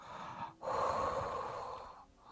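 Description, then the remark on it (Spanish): Heavy, rasping breathing of a large creature, loud: a short breath, then one long, drawn-out exhale lasting over a second, with another breath starting at the end. “más o menos hacia arriba distingues la claridad y casi te parece escuchar una respiración fuerte de un ser grande, en plan”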